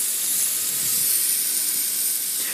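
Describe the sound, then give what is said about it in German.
Fish sizzles steadily on the smooth plate of a hot electric grill with its heat control turned down, a continuous bright hiss and crackle that holds an even loudness throughout, with no voices. “Ich habe den Regler jetzt runtergeregelt und nehme jetzt die glatte Fläche und setze unseren Fisch einfach da drauf.”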